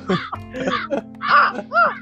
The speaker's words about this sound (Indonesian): oh enggak ada enggak ada, ada yang gagak.